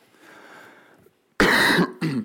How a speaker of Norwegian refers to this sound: Beklager at jeg hoster litt. Post-korona-hoste.